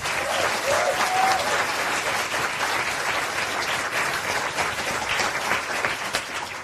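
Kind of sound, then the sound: crowd, audience applause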